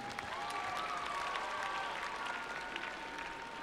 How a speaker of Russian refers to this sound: Аплодисменты нам не мешают, потому что это свидетельство того, что вы с нами согласны.